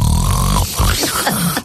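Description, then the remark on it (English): Close, loud snuffling right against a microphone, a run of breathy, rough sniffs with muffled thumps over under two seconds, no talking. “secret sound is the secret sound …'s nose on the microphone”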